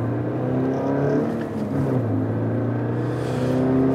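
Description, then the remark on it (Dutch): A 200 hp Subaru BRZ sports car engine drones loudly and steadily, its pitch dipping briefly midway as if shifting gears before pulling strongly again. No one speaks. “De Subaru BRZ laat je eigenlijk geen moment met rust.”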